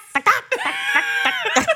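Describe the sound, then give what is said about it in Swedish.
A person imitates a clucking hen, loud and in their own voice: a quick run of sharp cluck-like bursts around a drawn-out, squawky middle note. “Lite inspirerad av hönan när jag skulle tacka lite ödmjukt, det var långt ifrån mm.”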